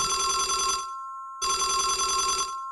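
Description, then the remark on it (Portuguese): A telephone bell rings inside a house in two rapid, rattling bursts separated by a short pause, the second cutting off abruptly; bright, metallic and fairly loud, with no voices. “Coloquei o pacote na mesa de café e, enquanto voltava para a porta, ouvi um telefone tocando em algum lugar dentro da casa.”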